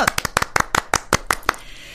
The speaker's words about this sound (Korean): 네, 파이팅 박수 쳐드릴게요. 응원.